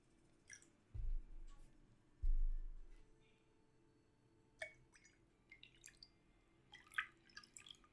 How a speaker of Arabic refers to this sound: هات كاسة فاضية خليني صب لك مي